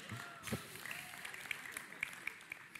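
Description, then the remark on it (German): A person claps hands in a loose, uneven rhythm, sharp but fairly light slaps spaced out over a few seconds against a soft background hiss. “Ich weiß nicht, warum du gerade klatscht, ob ich ein 1 gekriegt habe oder ob ich, ob ich endlich mal auch geschafft habe, was zu wagen und zu laufen.”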